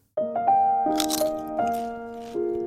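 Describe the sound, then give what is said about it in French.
A few crackly crunches of crisp food break out in a short burst near the middle, over a steady humming tone that shifts pitch in small steps. “Croustille, hein”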